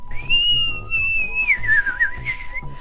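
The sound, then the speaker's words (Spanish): A high, reedy whistling tone of wind blowing through a thin, tall reed cane rings out steadily, then wavers and slides in pitch over soft, low background music, clear with no voices. “Sonidos que poco a poco fueron convirtiéndose en una hermosa melodía que hoy conocemos como música del viento.”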